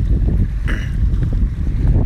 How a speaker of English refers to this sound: It's windy. We're on an island.